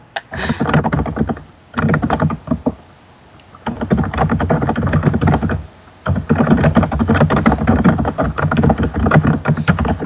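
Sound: typewriter typing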